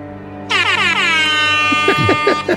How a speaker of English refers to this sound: Let's get some air horns.